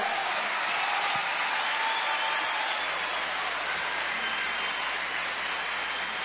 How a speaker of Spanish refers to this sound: Un aplauso enorme, por favor, para la banda regional ….